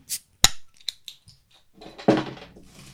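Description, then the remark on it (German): A bottle of apple-flavoured fruit wine drink (4.5% alcohol) is opened with an opener: a few sharp metallic clicks and clinks, one loud snap, then a longer rushing hiss near the end. No one speaks. “Ja, gib mir doch mal den Öffner.”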